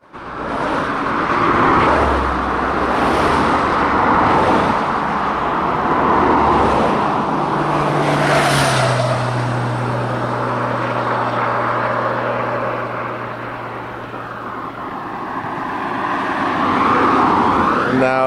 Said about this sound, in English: that is the sound of an A road, which is exactly the kind of road that you don't want to find yourself cycling down when you're trying to recreate a uh, cycle tour in the genteel Edwardian fashion.